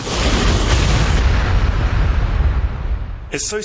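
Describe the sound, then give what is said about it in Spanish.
A single loud explosion bursts out, then a deep rumble rolls on and slowly fades for a few seconds before someone starts speaking at the very end. “Una vez arrojados a la caldera, el detonador se activará y provocará una explosión capaz de acabar con una fábrica entera.”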